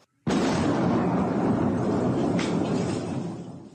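A sudden, dull explosion from a Russian army bombing of a residential building in Kharkiv at night strikes after a brief silence, then a heavy, low rumble sustains for several seconds before slowly beginning to fade.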